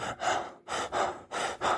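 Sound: imitated gasping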